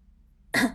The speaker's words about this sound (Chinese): 韩小军咳嗽一声，严肃的说道